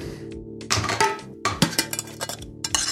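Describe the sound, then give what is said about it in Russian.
A tin of Danish blend tobacco being opened: a series of sharp metallic clinks and scraping rattles, several bright hits in quick succession, with no voices. “Э, это вот сейчас вы даже услышите звук банки.”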